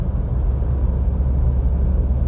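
Steady low rumble of a Renault car's interior while driving, a dense road and engine drone filling the low end at constant, fairly loud level with no voices.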